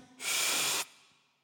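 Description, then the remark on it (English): A single deep, breathy inhale, a loud airy rush lasting well under a second before quiet returns, with no talking. “Like, when a boa is around the body, and when you breathe out, look, you breathe in like this.”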